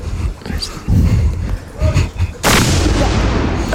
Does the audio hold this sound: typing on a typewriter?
no